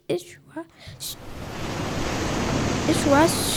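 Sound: stormy sea waves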